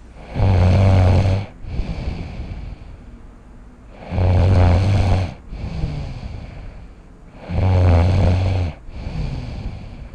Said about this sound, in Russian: На пленке были 2 минуты гитарных партий, а затем 40 минут здорового рокерского храпа.